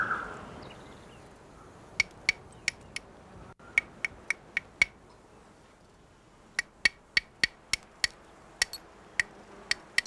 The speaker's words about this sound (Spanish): esto es un rebaje por percusión.